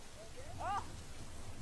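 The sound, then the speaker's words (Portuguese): Steady rain pours down in a dense, even hiss with a low rumbling undertone, and a brief voice-like tone rises for a moment midway; a month-long downpour on a new megacontinent near Hawaii. “No novo megacontinente perto do Havaí, chove a cântaros durante um mês.”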